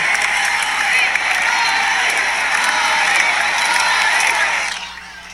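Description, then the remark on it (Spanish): A concert crowd in Chile gives President Gabriel Boric a loud ovation as he arrives, a dense roar of clapping and cheering that holds steady for over four seconds before dropping away suddenly at the end. “Sí, sí, una ovación.”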